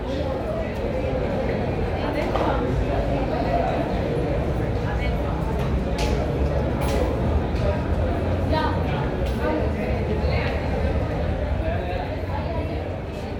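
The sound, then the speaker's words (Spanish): A busy hallway in block 12 of the University of Antioquia, full of overlapping student chatter and footsteps as people hurry past, a steady crowd murmur that stays constant and fairly loud throughout. “las ventas de dulces que se realizan, los dedos escribiendo apresurados en el teclado de un computador, las leves señas de estudiantes que se graban mutuamente y la gente que pasa apresurada con destinos desconocidos.”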